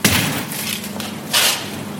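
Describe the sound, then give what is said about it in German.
A heavy emergency exit door of a club is pushed open onto a suburban train station with a sharp metallic clunk, followed by a second loud, hissing burst of noise about a second later, without any talking. “Und das hier, wenn wir jetzt hier eine Tür machen, der Notaus Notausgang, dann stehen wir”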